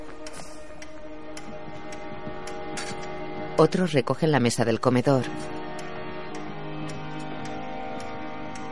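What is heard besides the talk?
clock ticking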